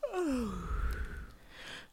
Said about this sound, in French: se réveillaient lentement en bâillant et en s'étirant tels de petits chats, comme s'ils avaient senti que le voyage touchait à sa fin.